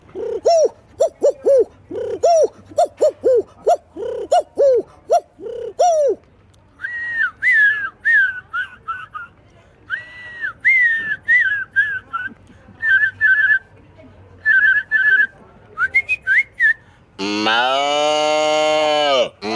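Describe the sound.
A man's voice runs through imitations of a goose, a donkey, a telephone and a motorbike in one go: rapid honking and braying animal calls, then high whistled trills like a ringing phone, ending in a loud, rising, buzzing motorbike rev.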